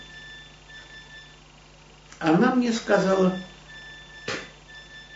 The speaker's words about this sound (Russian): это что пищит? Это пищит мой телефон смс а. пришла.